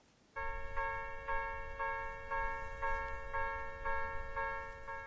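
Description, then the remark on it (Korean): A railroad crossing bell clangs in a steady, rapid rhythm, about two strikes per second, ringing loud over a low rumbling background with no one speaking. “건널목 소리네요.”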